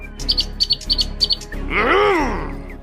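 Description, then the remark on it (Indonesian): Birds chirp in quick, bright pairs several times, clear, followed by a longer, lower call that swoops up and back down. No one speaks. “Dia tidak suka jika ada burung yang hinggap di pohonnya.”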